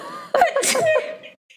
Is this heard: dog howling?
no